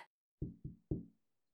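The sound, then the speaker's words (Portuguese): Three firm knocks on a wooden hotel room door in a quick uneven rhythm with the last one hardest, each dying out fast into silence. “Então ela bateu à porta.”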